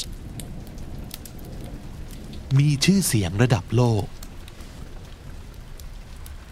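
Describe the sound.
Steady soft crackling and popping from a fireplace fire runs through the whole recording, with scattered sharp snaps. A voice speaks briefly over it in the middle.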